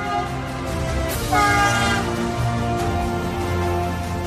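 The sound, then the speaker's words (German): A train horn sounds a sustained, chord-like blare over the steady low rumble of a passing train in Switzerland, fairly loud, with no one speaking. “Täglich reisen Hunderttausende von Fahrgästen mit dem Zug durch das Land.”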